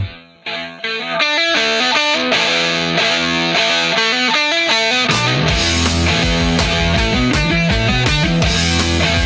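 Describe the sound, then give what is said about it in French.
A 1970s heavy rock song with a loud, distorted guitar riff; after a few seconds the bass and drums crash in and the full band drives on steadily. No one speaks. “On parlait tout à l'heure du son des années 70, là, on, parlait de …, là, je vais vous repasser un peu ….”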